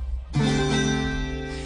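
A single bright chord strummed on a Colombian tiple rings out suddenly after a brief silence, its many strings sustaining and slowly fading over the next second and a half, with no voices.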